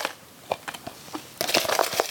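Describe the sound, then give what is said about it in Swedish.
A handful of paper quiz answer slips for a prize draw rustles and tumbles into a container: scattered soft crinkles first, then a denser, louder rush of papery crunching as the rest pour in. “Då tar vi även och häller i de här svaren som inte hade alla rätt”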